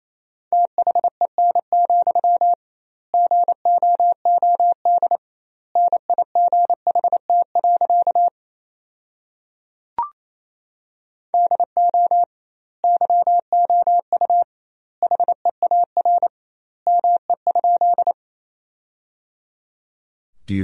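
Fast Morse code beeps at 28 words per minute on a single steady pitch, keyed in rapid dots and dashes, sending sentences built from the 300 most common words, with clusters of letters separated by doubled word spacing and a brief click near the middle; no voices.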